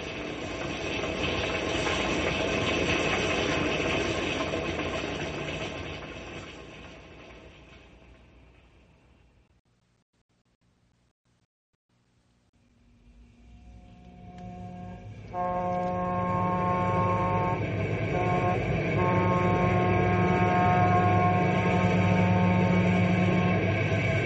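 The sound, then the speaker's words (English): A passenger train rumbles loudly along the rails, fades almost to silence, then roars back with steady rolling noise and sustained tonal whining over it. No one speaks. “Oh, my heart gets pains when I think of that trainload of passengers.”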